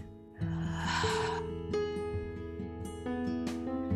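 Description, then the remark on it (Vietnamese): A single slow, deep breath drawn in with a soft airy rush lasting about a second during a guided slow, deep breathing exercise, clear over calm, sustained background music. “bây giờ ngay lúc này các chị em hãy thở chậm và sâu giúp phương nào bây giờ mình tập luôn nè mình thử với nhau cùng 10 hơi thở thôi mọi người nào hít vào nè thở ra”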